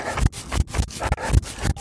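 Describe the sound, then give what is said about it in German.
A zipper on a trouser pocket is pulled in a few quick, rasping strokes, fairly loud, with brief gaps between each scratchy pass and no talking. “so, die Hose, die ich momentan anhabe, vorne eine Tasche, die nochmal unterteilt ist, hinten eine Tasche, die unterteilt ist, jeweils mit Reißverschlüssen”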